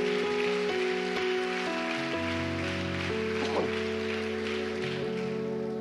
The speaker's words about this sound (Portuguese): Dê mais uma salva de palmas bem alto a Jesus, que aqui a gente aplaude mesmo.